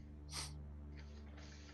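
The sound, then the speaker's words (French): A creature sniffs at a person: a few quiet, short breathy sniffs in quick succession, a sharper one first and then softer snuffling inhalations, over a faint steady low hum with no talking. “Il s'approche de toi. Il te renifle.”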